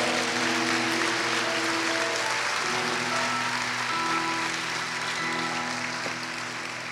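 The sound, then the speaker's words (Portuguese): An audience claps steadily for about seven seconds, a dense, loud wash of applause with sustained keyboard chords shifting underneath, and no one speaking. “Você gostaria de dar um aplauso?”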